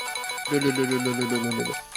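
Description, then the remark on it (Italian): A prize wheel, spun to pick a topic, turns with a rapid pulsing rattle over a bright, ringing tone. It is loud, runs for about two seconds, and no one speaks. “Ah, questo è il rumore della ruota, bello le ruote londinesi.”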